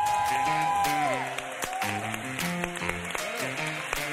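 A burst of applause from a group in Madrid for a guest, sharp claps crackling steadily for about four seconds over a tuneful musical background, fairly loud throughout.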